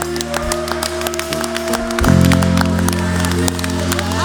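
An audience claps their hands for Jesus with raised hands in a dense, sustained burst of applause, with sustained organ or keyboard chords swelling underneath and growing louder halfway through.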